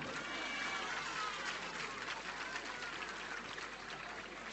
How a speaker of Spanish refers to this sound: Un buen aplauso para ella, vamos.